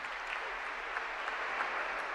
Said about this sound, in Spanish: Resuena con fuerza este aplauso en la Catedral de Pamplona y a continuación pues ya finalizará la Santa Misa.